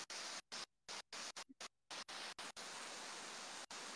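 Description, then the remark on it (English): Running water from a mountain stream in the mountains of Asheville, North Carolina, rushes in a steady, full, roaring hiss, briefly cutting out several times in the first two seconds before flowing on continuously. No one speaks. “Is the water um, okay for the sound, or is it too loud?”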